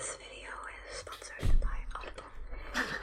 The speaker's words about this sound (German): Okay. Wir hören uns gerade ASMR-Videos an. ja, du hast jetzt einfach random ein ASMR-Video angemacht. so mitten im Podcast.